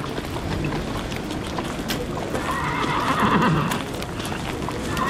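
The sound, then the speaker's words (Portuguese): A horse whinnies loudly mid-way through, over a steady backdrop of horses' hooves clopping and shuffling by a fence near a tent where officers and soldiers are gathering, with a busy outdoor ambience and no speech. “Passemos por detrás destes cavalos e vamos encostar-nos ali à vedação.”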